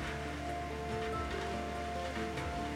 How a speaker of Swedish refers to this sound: Oj, nu regnar det verkligen här utanför. Ja, det hör ni säkert.